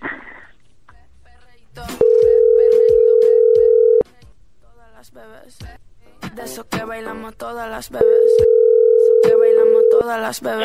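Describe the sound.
A telephone call dialed to Restaurante Manzanilla rings out: two long, steady, mid-pitched ringing tones about two seconds each, separated by a pause filled with clicks and muffled voices.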